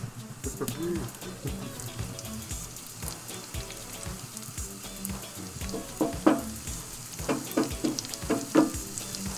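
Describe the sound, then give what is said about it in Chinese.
Shrimp sizzle steadily as they fry slowly at low temperature in plenty of oil, a dense crackling hiss studded with sharp pops that grow louder and busier in the last few seconds. “我们收音近一点，有听到那个吱吱作响的声音吗？”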